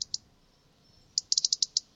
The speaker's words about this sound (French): Oui, donc c'est un oiseau qui a une tache euh, ah, euh, rouge. un rouge gorge.